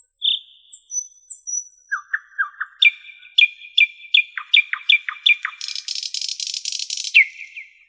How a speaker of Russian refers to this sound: Они ходят его слушать маленькая такая птичка, она очень красиво поет. Один и тот же соловей может издавать несколько очень разных звуков, до 12 разных песенок.